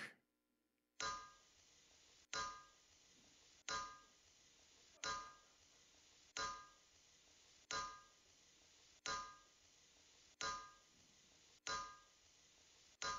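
About ten loud, ringing strikes of a hammer on metal land in a steady, unhurried rhythm, each clang briefly sustaining before the next blow. No voices.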